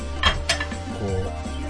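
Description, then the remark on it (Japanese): A small plate for holding hamburger patty mixture is set down on a hard surface, giving two quick ceramic clinks over a low steady background hum. “置くためのお皿、ね、これをご用意してます”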